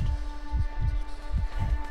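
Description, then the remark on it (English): A deep, pounding heartbeat thuds in slow lub-dub pairs, two double beats over a steady low electronic hum, with no voices. “My vision started to blur, and I could feel my heart pounding really hard.”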